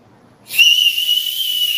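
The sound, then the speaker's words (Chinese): A single shrill whistle blast, blown to stop a rolling number draw at the G Club annual meeting, starts after a brief moment of low background noise and holds a steady, piercing high pitch for over a second without breaking. “那我吹哨子的时候，它就停。”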